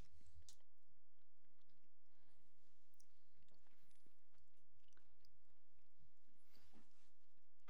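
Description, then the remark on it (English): Quiet chewing and crunching of a peanut butter penguin frozen treat that is melting, with irregular moist bites and soft clicks spread across the stretch and no one talking. “peanut butter penguin taste test.”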